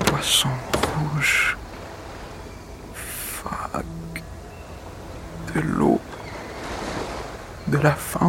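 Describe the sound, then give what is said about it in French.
Several loud, harsh gull cries ring out in short bursts near the start, middle and end, over a steady rush of wind and breaking waves. “Le vent, dans le tambourin, les goélands.”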